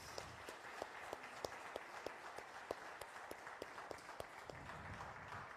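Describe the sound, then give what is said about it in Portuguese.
A church audience claps together for several seconds for a pastor and his wife, a steady wash of applause with sharper individual claps popping out, fairly soft, with no one talking. “Vamos dar uma salva de palmas para esses preciosos.”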